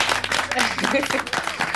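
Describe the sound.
Audience applause: a steady, dense wash of clapping throughout the short stretch, with voices talking and calling out over it.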